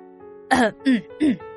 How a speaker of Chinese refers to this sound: 单独眼海盗咳嗽一声，眨巴着眼睛说